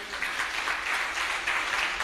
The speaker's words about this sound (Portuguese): Aleluia. Quantos podem aplaudir essa verdade?